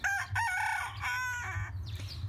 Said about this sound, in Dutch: Je hoort hier op de achtergrond onze teun, onze grote bruine zijdehoenderhaan.